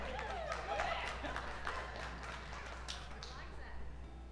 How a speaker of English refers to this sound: Yeah, the cla- I still don't know why they're clapping. I think that. I think they're glad we're leaving.